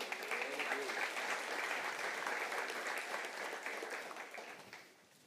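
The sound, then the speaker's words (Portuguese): A church audience claps in sustained, dense applause for the Lord during a service, a steady wash of many hands that stays loud for several seconds before tapering off at the end, with faint voices mixed in. “Dê um aplauso ao Senhor e à sua vida.”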